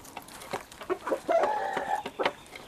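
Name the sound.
hens clucking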